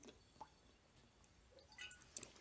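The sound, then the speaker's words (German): Quiet wet sounds of someone sipping water and Radler and swallowing, with small liquid clicks and gulps scattered over a couple of seconds and no talking. “Schluck Wasser, Schluck Radler, Prost.”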